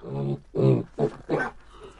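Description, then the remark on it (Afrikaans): Four gruff, throaty grunts come in quick succession, loud, from an angry warthog snorting and growling as it sniffs the air and circles a tree, each burst short and harsh with brief pauses between. “Hy grom die hele tyd kwaai.”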